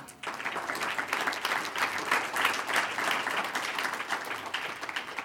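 A church audience claps steadily and fairly loudly for several seconds as applause to the Lord during a sermon, a dense wash of many hands with no one speaking over it, before the applause begins to thin near the end.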